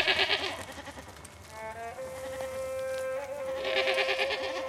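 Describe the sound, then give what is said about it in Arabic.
A sheep grazing with a flock in the mountains gives one long, wavering bleat in the middle, steady and mid-pitched, over a constant hum of buzzing insects. Nobody speaks. “يخرج مع الصباح بكري ولا في العشيه كيف تنسم الدنيا يخرج الغلم متاعو فهمتني ويبدا يرتع بيهم واحده واحده”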